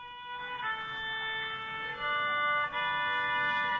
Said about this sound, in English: You'll hear it. It's a violin.